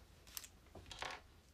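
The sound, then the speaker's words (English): A small piece is pulled off a butane lighter that has little grids in it for crushing buds: a quick sharp click, then a brief scraping slide and a second snap, quiet with no one talking. “It's a butane lighter, but it's got little grids in it, so the, the crush your crush your buds.”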